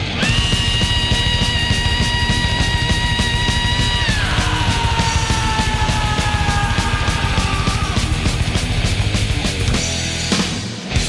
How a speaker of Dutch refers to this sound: Ah, en dit is de opener. En ja, niet alleen de openingsrif, maar misschien ook wel de meest ijselijke gil in de geschiedenis van de metal krijg je meteen te horen wanneer dat, dat nummer begint.